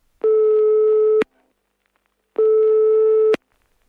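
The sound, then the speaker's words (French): A mobile phone rings twice, unanswered, in the hospital room of a patient in a coma. The long, steady electronic tones are separated by a pause of about a second. They are clear and fairly loud, with no voices and nobody picking up. “Puis ils restent dans le coma longtemps, et souvent leur téléphone portable reste dans leur chambre, et ils sonnent, et ils sonnent, souvent.”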